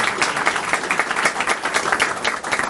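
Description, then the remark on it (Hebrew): An audience breaks into applause for the Creator, a dense, steady wash of many hands clapping at once that holds at a fairly loud level for a few seconds, with no talking over it. “זה קרה, כפיים לבורא עולם, שבח שמו לעד.”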